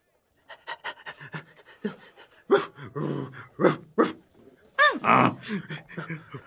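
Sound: dog panting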